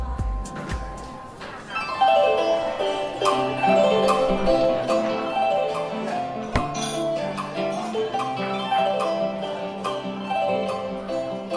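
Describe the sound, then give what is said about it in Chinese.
Traditional Vietnamese instrumental music played on traditional Vietnamese instruments in a well-known local folk restaurant in Vietnam: bright plucked and struck notes ring out in a steady, flowing melody over a soft low accompaniment, with a metallic, bell-like shimmer and no voices. “你现在听到的是用越南传统乐器演奏的曲子”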